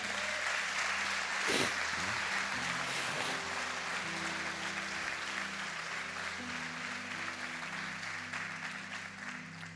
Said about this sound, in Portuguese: Em nome de Jesus, quem crê, dá uma salva de palmas que Ele é Deus.